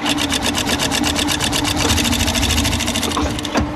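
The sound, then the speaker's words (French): A sewing machine in an upholsterer's workshop runs steadily, its needle stitching in a fast, even rhythm of rapid clicks before slowing and stopping near the end. “Ah, là, on entend la machine à coudre et, le marteau, euh, mais qu'est-ce que c'est le métier de tapissier exactement,”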